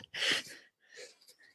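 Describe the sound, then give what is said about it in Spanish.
A single sharp, close-up sneeze bursts out, then trails into a softer, breathy exhale a moment later. “Salud.”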